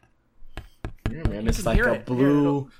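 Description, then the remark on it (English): Several sharp, dry taps on a stiff cardstock Doom Eternal art print of a demon fortress with orange lights and a silvery Doomslayer logo, irregularly spaced, mixed in with a man talking casually over and between them. “yeah, that's the sound of quality.”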